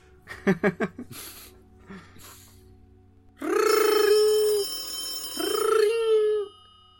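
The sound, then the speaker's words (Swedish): A wall-mounted telephone in a room rings twice, each loud electronic ring lasting about a second with a short gap between. A few brief, soft sounds come before the first ring. “Den här jävla telefonen som sitter på väggen här i det här rummet börjar plötsligt ringa.”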